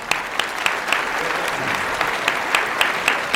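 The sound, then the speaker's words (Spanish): An audience applauds steadily, a dense wash of clapping with a few sharper individual claps popping out at irregular intervals over about three seconds. “Un aplauso, por favor.”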